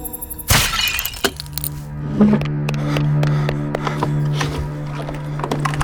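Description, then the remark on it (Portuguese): At night, one loud, heavy thud hits a house roof near the start, followed by scattered clatters and small knocks over a steady low hum, with no one speaking. “Eu tava bem distraído quando só escutei o baque forte no telhado de casa.”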